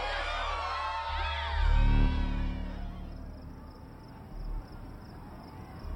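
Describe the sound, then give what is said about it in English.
A crowd's shouting and cheering comes through muffled, heard outside in a parking lot, fading after a couple of seconds into a low, steady rumble of wind and distant traffic with a thin insect-like chirping overhead. “The shouting of the crowd, now only an echo muted by the sound of wind and distant traffic.”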